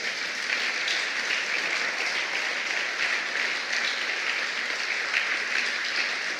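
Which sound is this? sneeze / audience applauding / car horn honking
audience applauding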